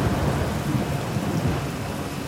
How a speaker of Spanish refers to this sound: A pesar de sus desesperados llamados y gritos, el silencio era la única respuesta, interrumpido solo por el golpeteo de las gotas de lluvia sobre las hojas y el rugir de la tormenta que ganaba intensidad.